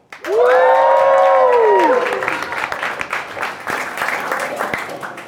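A live audience at the FinTech Insider After Dark Christmas special show, held at the WeWork London offices, bursts into loud applause, with whoops and cheers rising over the clapping at first, then steady clapping carrying on for several seconds.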